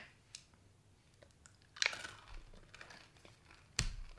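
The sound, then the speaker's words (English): Someone crunches through caramel M&M candies, with two loud, sharp crunches standing out among quieter chewing noises and no talking. “These M and M's are good.”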